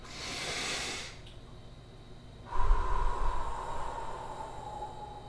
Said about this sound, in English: now tactical breathing is breathing in breathing in for five or six seconds holding your breath, then blowing out.